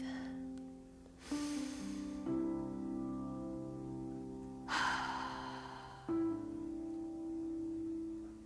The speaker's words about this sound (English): Before we get started, let's all just take a deep breath.